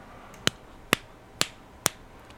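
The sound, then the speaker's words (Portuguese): Four sharp slaps as a man slaps himself, evenly spaced about half a second apart, crisp, with no talking in between. “Isso sou eu me batendo, me punindo por ter deixado.”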